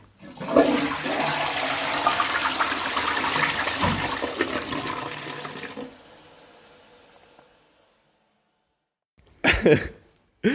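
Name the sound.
toilet flushing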